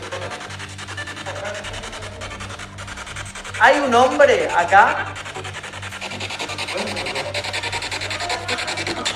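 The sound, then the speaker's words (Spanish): Steady, harsh static from a spirit box radio device crackles and hisses throughout, with a brief louder burst of garbled, warbling voice-like sound breaking through near the middle before the hiss settles back. “Mira, ahora es como que yo lo tomo como que están queriendo tratar de usar el dispositivo para comunicarse y genera todos estos sonidos, porque hace dos minutos estábamos charlando, esto no, la, fritura.”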